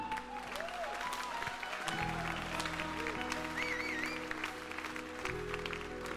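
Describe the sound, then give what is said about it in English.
An audience claps steadily for several seconds, a dense, continuous patter of hands with a few whoops and voices rising over it, alongside a low sustained musical tone underneath. “Come on, I, reckon we should have a bigger clap than that, isn't it?”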